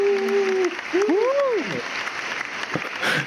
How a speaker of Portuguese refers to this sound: Eu vou colocar uma salva de palmas aqui para você